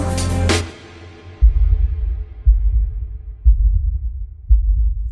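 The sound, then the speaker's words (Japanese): A brief ringing tone fades out, then a deep, muffled heartbeat thuds four times at a slow, steady pace, about once a second, with a low throbbing rumble between beats. “聞こえてるんだよ僕には僕と君以外の心音が”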